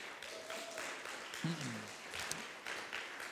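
A crowd applauds steadily for a few seconds, a dense wash of clapping with a brief whoop or cheering voice rising above it midway through.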